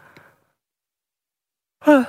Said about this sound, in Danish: Undskyld, jeg skal lige gabe.